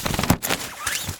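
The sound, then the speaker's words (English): A gavel bangs several times in quick succession, sharp wooden knocks ringing out fairly loud with no voices, as Judge John Hodgman rules. “this is the sound of a gavel.”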